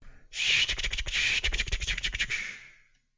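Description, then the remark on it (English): A dense, chittering swarm of bugs rasps and clicks continuously for about two and a half seconds, loud, with rapid crackling pulses over a hissing high buzz, then fades out. “and the last noise that you hear is a sort of chittering mass like”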